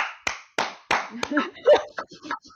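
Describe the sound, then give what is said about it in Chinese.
Four loud, sharp hand claps ring out at a steady pace, each with a short trailing echo, then people start talking. A person shows off a knack for clapping very loudly. “我有一个很烂、很写不上履历的技能，就是我可以拍出很响的。鼓掌，”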